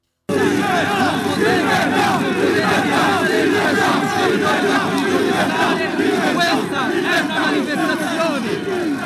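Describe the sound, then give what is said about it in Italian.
A large crowd of protesters at a street demonstration in Italy against lockdown rules, saying they want to reach Montecitorio, shouts and chants continuously, a dense roaring wall of many voices that stays loud throughout, with no single speaker standing out. “Sentiamo un paio di audio, visto che le cose sono strettamente collegate dalla manifestazione”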